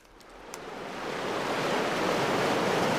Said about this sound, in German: Und was wir jetzt gerade hören, das rauscht hier so heran. Das sind Wellen. Das ist ja so eine mittelstarke Brandung